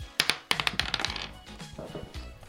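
A die is thrown and clatters across a hard surface: a couple of sharp clicks, then a quick, decaying flurry of rattling taps that settles within about a second.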